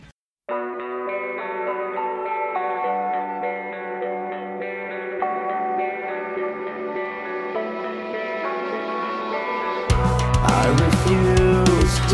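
A rock song plays alone, opening with a layered, effects-heavy melodic intro that holds steady before the full band crashes in loudly with drums and distorted guitars near the end.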